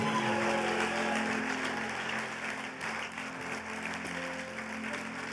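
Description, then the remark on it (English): An audience applauding: dense, steady clapping from many hands that holds at an even level for about five seconds, with faint sustained low tones underneath. “Hey, let's hear it for all of them this morning.”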